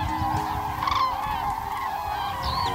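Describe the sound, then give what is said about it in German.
Common cranes trumpeting as they gain height over a wide, boundless field, a loud and continuous chorus of overlapping honking, rolling calls that repeat throughout with no pauses and no voices. “Und ich liebe dieses Trompeten, dieses Nölen, wenn das dann über diesem randlosen Feld”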